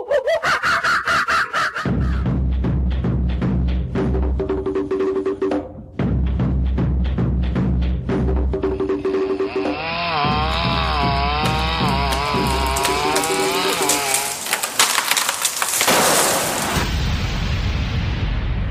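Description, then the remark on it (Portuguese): The Macaco Urbano intro jingle: loud and dense, with revving, chainsaw-like buzzing and rhythmic musical bursts, then a wavering, warbling tone that swells before cutting off abruptly. No one speaks. “E vamos começar e olha, rodando a vinheta aí agora.”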